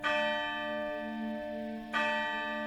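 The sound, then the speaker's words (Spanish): A deep church tower bell strikes twice while striking twelve o'clock, each stroke ringing out with a long, humming resonance that hangs in the air between blows. No voices, just the slow tolling. “La campana de la torre dio las doce.”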